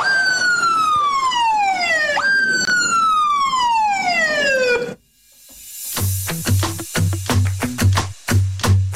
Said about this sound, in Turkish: Tamam üç tane siren.